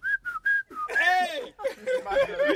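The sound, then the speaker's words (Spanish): Someone whistles four short, evenly spaced notes, mimicking a sound, then follows with louder warbling, sliding vocal squeals that rise and fall. “Si chifla el culo, está bien.”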